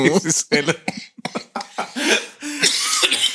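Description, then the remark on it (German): A person recovering from a cold coughs repeatedly, laughter setting off the cough, a series of harsh, broken bursts tangled with breathy laughter and vocal sounds, loud and uneven over a few seconds. “aber wenn ich lachen muss, kommt immer noch dieser Hustenreiz”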